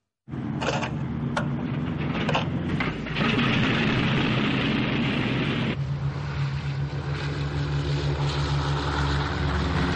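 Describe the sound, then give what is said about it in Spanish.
The propeller engine of the Enola Gay airplane starts up, with Tibet leaning out of the pilot's window ready to start it: a few sharp clanks and sputters give way to a loud, steady low drone that settles into an even, throbbing hum, with no voices. “La última foto sería de Tibet sacando la cabeza por la ventanilla del piloto, listo para arrancar el motor.”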